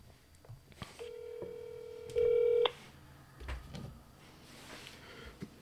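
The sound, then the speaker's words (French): A phone call being placed: a steady electronic tone sounds for about a second and a half, then swells briefly louder before cutting off, with faint room noise and a few soft knocks around it. “là, je vais l'appeler live.”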